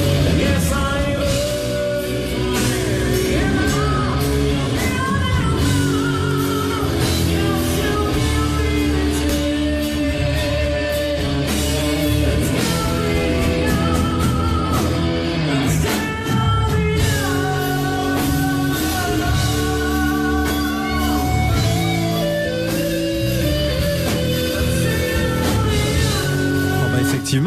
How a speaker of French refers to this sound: Alors le son est pas forcément excellent puisque c'est une captation concert et, et par un, téléphone, donc mais on se rend compte quand même.